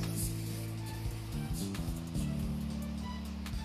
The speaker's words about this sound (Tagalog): Lakas na ng ulan. Oh no, ang lakas na ng ulan. Kinakabahan ako kasi baka mamaya, ano, meron ng bagyo.